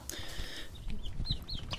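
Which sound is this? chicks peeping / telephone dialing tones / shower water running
chicks peeping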